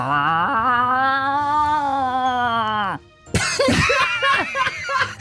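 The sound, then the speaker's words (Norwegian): A person imitates a very angry cat confronting another cat and defending its territory: a long, drawn-out wailing yowl that slowly bends in pitch, followed by a burst of harsh, raspy hissing and spitting noises, loud. “Du er en meget sint katt som møter en annen katt, og du nå beviser at dette er ditt område.”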